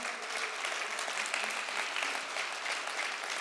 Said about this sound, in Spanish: Dale un aplauso a la palabra del Señor.